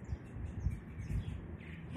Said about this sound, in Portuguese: Sentiu os pássaros.